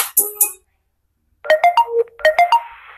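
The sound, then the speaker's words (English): A phone notification ringtone announcing that a food delivery order has arrived: two quick high chirps, a second of silence, then a bright melodic jingle of short tonal notes played twice. It sounds clear. “Oh, what's that sound? Oh, sorry. My Starbucks order from Uber Eats just got here.”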